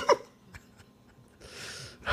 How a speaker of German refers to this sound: die schnarcht. Aber die lässt sich hier auch gar nicht von meinem Gerüttel stören.